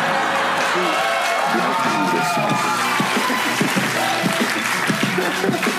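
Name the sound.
audience clapping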